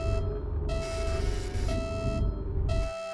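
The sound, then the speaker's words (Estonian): Electronic alarm signals from a ship's support systems beep and pulse in overlapping on-off bursts, layered tones sounding together over a steady low engine-like rumble, loud, with no talking. “ja laeva tugisüsteemid hakkasid eliitkeskkonda korraga mitmesuguseid häiresignaale edastama.”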